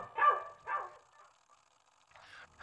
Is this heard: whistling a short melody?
no